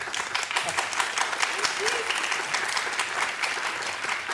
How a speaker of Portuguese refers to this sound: A plateia hoje está dialética, né? Aplaude a favor, aplaude contra.